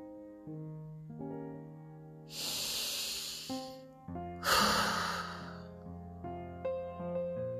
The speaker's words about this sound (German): Atme am besten in deinem Atemrhythmus tief ein und aus. Gerne durch die Nase ein und durch den Mund wieder aus.